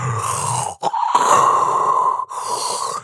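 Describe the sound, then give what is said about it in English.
A person imitates the labored, gasping breaths of someone with sleep apnea struggling to breathe in their sleep, three strained voiced pulls of air separated by brief pauses, fairly loud with no other talk. “This is someone who's struggling to breathe when they're supposed to be”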